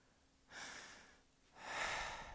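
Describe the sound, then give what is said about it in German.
A deep breath drawn in and then let out, two broad airy whooshes about a second apart, clear, the exhale slightly louder and longer. No talking. “Und habe so durchgeatmet, so, so ein ganz tiefes Atmen.”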